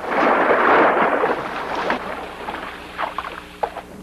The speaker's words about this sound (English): We took a large uh, Coke bottle and we shook it up real good, threw it out on the cement and it goes shh. put that and a zipper and a little bit of water, and you've got the shark coming out.